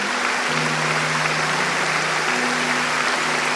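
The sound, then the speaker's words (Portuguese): A church audience claps steadily for people who gave their lives to Jesus that night, a dense, continuous wash of applause with low sustained keyboard tones humming underneath. No one speaks. “Você pode aplaudir esses irmãos que entregaram a vida para Jesus hoje?”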